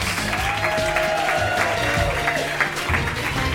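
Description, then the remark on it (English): An audience claps steadily and loudly at the end of the show Mr. Game Show at Soho Theatre, a dense wash of hands, with a faint voice briefly audible beneath the ovation. “Keep applauding.”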